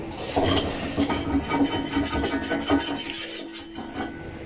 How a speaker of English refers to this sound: And he's currently trying to be a one man band by scraping the pan. did you hear that? yeah. All the people are going to hear is you literally scraping on your van. I'm scraping my pan, do you mind?